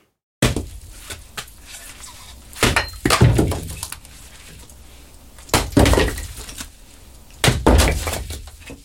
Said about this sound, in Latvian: Tā skalda malku